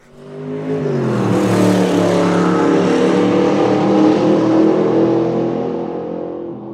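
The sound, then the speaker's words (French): A Porsche 911 Carrera sports car engine revs up and accelerates, its strong harmonic roar climbing in pitch and holding loud for several seconds before easing slightly at the end. No one speaks. “Mais ouais, ma bagnole préférée, c'est très clairement celle-ci. Porsche 911 Carrera je continue de rêver qu'un jour je l'aurai, qu'un jour j'en aurai une.”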